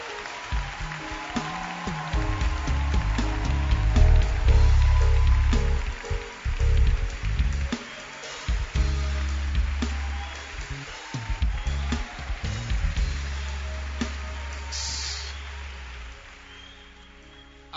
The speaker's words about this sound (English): That is why it is important that we clap our hands for our pastor.